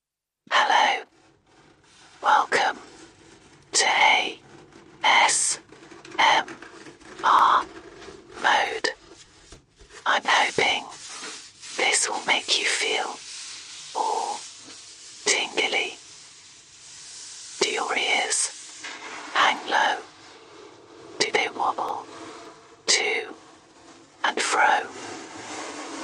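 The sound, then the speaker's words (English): Soft, breathy ASMR whispering with no voiced tone, played by an Alexa smart speaker after the command "do ASMR", coming in short bursts and pauses over about twenty-five seconds, intimate but slightly thin, as if through a small speaker. “I'm just going to invoke it by saying do ASMR, and then I'll let it play for a bit, and you can stop as soon as you start getting creeped out.”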